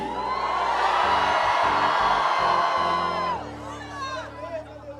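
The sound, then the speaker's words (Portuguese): A large audience at a church service raises their hands and erupts in loud, sustained shouting and cheering, a dense roar of many voices with whoops rising above it, easing slightly near the end over a steady musical backdrop. “Ah, irmão, pelo amor de Deus, joga essa mão para cima e grita aí.”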